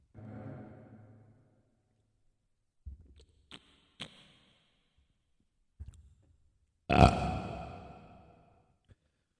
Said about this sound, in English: sorry about the burger chewing noise audio only listeners